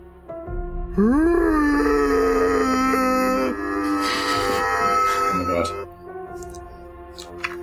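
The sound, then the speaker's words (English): A person voices a strange guttural groan, loud and drawn out: it swells upward in pitch, then holds a raspy, moaning tone for several seconds before breaking off. “… opens his mouth and lets out this strange guttural noise.”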